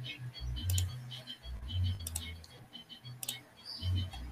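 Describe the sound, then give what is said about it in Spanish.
Sharp, quick clicks from a computer mouse, a few of them spaced irregularly, over a low muffled rumble and faint background voices. “Se escucha el tu... clic del mouse.”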